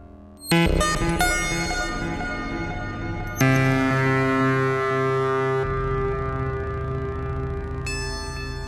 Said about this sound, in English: we are using the even VCO triangle and sine wave outs into the chopping kinky wave folder, and we're taking the chop out, and we're sending that to the Pico DSP, the Mimeophone, and the Desmodus for some delay and reverb.